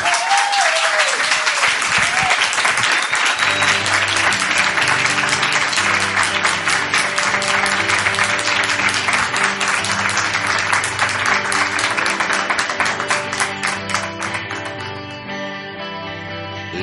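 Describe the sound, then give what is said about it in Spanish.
A large audience claps loudly and steadily, a dense wash of applause with a few early whoops, as music rises underneath after a few seconds and the clapping thins toward the end. “Fuerte aplauso,”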